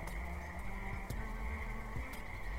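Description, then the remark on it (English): A steady chorus of frogs croaking continuously outdoors by a porch at moderate volume, with a low background rumble and a couple of brief clicks; no one speaks. “You hear the frogs? Yeah. I hear the frogs.”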